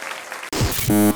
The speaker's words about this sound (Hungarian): Köszi, hogy velem tartottál. Ez a taps neked szól.